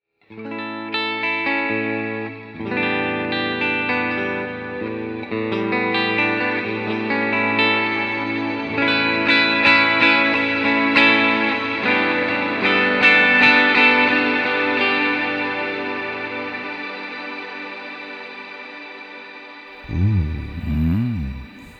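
Sustained guitar chords played through a shimmer reverb pedal effect, washed in a lush shimmer reverb, with bright octave-up overtones ringing above and swelling tails blending into a dense, glowing pad before fading; a short low wobbling tone follows at the end.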